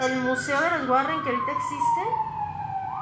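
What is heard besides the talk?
siren outside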